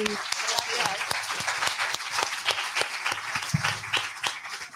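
An audience bursts into steady applause, many hands clapping in a dense, continuous patter with sharper individual claps poking through, sustained at a fairly loud level for several seconds.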